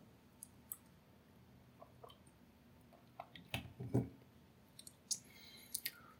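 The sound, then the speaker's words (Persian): Soft drinking sounds as someone drinks water: scattered wet mouth clicks and a couple of quiet gulping swallows near the middle, with faint sips and smacks after, no talking. “به هر روی من در این تکگویی اول یه آب میخورم”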